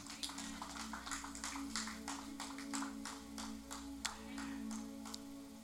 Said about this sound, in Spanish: Cuando dicen amén, dale un aplauso y te puedes sentar.